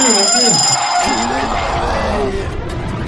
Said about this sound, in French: Je suis content de pas avoir un réveil comme ça